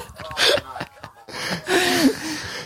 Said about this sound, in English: that's just the sound of Shane Warne being bitten in the face by a python